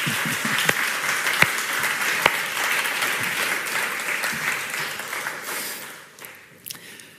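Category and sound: crowd, audience applause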